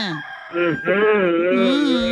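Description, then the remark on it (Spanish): A person's voice imitates a chicken's clucking and crowing, with wavering, nasal squawks rising and falling over about two seconds, loud. “ya te están imitando, pues, te felicito.”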